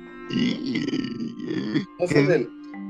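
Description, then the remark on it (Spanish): A voice imitates the croaking sound linked to Samara, like small but hollower burps, with a series of low, guttural, burp-like bursts, fairly loud, in three or four rough pulses with short gaps between them. “Ah, ya, sí, ya, como eructos chiquiticos. Sí, ya, es verdad pero más huecos, ¿no?”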